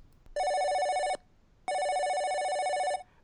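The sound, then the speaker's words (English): A telephone at the 3D Retro store rings twice, a loud electronic tone in two steady bursts separated by a short pause, with no one speaking. “Just then, the phone rings.”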